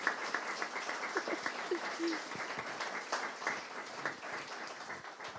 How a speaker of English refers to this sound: And thank you to our wonderful reader. Please, can we give her one more round of applause?